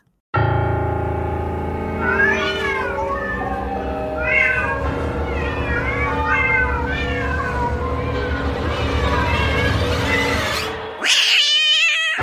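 Loud cats meow and yowl almost nonstop for about eleven seconds, drawn-out wavering wails rising and falling and overlapping, before a brief cut and a final burst of cries.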